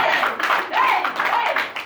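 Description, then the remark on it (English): A crowd applauds steadily, a dense wash of many hands clapping at once, with a few voices calling out over the top throughout. “I wish somebody would clap for this revelation.”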